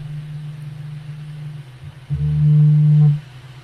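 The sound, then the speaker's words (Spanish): A steady low hum runs throughout, then a single loud electronic alert tone, a notification about a stolen car, sounds for about a second before cutting off abruptly. No one speaks. “No, me cae una alerta de un carro que se ha robado ese.”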